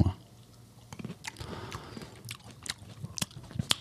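Wet chewing with loud smacking and crunchy bites, irregular mouth clicks and squelches repeating over a few seconds, no talking.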